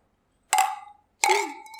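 Two bright glassy clinks of glasses in a toast, one after another about three-quarters of a second apart, each ringing out and fading quickly, fairly loud with no voices over them.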